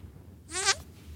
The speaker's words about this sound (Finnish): Miksi sulla on tallennettuna Pierun ääniä?